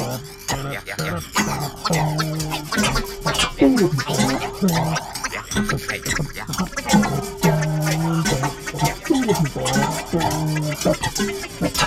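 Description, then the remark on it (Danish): Rhythmic, springy metallic twanging and scraping from the spring of an architect's lamp repeats in a steady loop, layered with resonant ringing tones and a single sharp clang of a metal wastebasket in a radio studio, fairly loud with no talking. “Som denne lille vignet bygget over den rytmiske lyd af fjederen på en arkitektlampe og et enkelt slag på studiets metalpapirkurve.”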